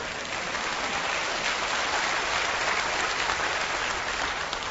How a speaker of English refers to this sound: Does this get even an amen? Uh, or a clap or something?